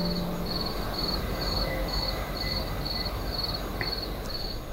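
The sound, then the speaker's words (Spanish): Crickets chirp in a steady, evenly spaced pulse, about ten bursts over a few seconds, recorded from a balcony, above a low, constant outdoor background hum. No one speaks. “Para los más escépticos, Luis grabó esos grillos desde su balcón y nos lo envió”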